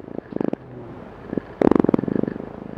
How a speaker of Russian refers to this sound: И это была плодовая мушка. Если вы оставите на подоконнике пакет с бананами, там обязательно заведутся такие крошечные полупрозрачные мушки – у них очень простой, очень маленький мозг, и ученые их очень любят.